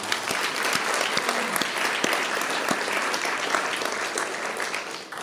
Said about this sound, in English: Um, I think that this is just a great privilege, and we thank you so very much. Uh, so I just want to give a round of applause to them.